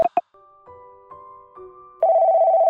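A telephone ringing: two quick electronic chirps, a thin sustained tone that shifts pitch a few times, then a loud, rapidly warbling ring that keeps pulsing. No one speaks.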